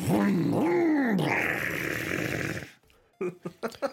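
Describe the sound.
A voice mimics a motorcycle engine revving, with rising and falling vocal whines followed by a sustained rough, rumbling blast, loud, then a few brief vocal bursts.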